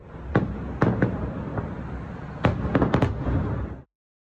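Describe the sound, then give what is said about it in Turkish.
An evening fireworks display in Baku celebrating the Karabakh victory bursts in sharp, booming cracks, a few spaced pops early and then a rapid cluster of loud explosions, over a continuous rumbling crowd-like background. “Karabağ zaferi havai fişek gösterileriyle kutlandı.”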